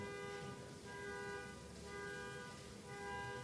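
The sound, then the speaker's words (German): A car alarm blares continuously outside, a steady electronic tone that sounds somewhat muffled, with faint background rumble and no one speaking; it has been going for five minutes without being switched off. “Denn irgendwer kriegt seit fünf Minuten nicht geschissen, die Alarmanlage von seinem bekackten Auto abzuschalten.”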